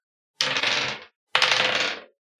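Two quick bursts of two D100 dice clattering and rolling across a hard tabletop, rolled for an advantage roll in a role-playing game, each lasting under a second and fairly loud, with a brief pause between them and no talking.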